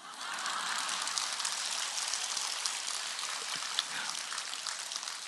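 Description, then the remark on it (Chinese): A thin, steady patter of light applause continues for about five seconds with no voices, its hiss-like clapping holding an even, modest level throughout. “一点都不幽默的，掌声这么一点点。”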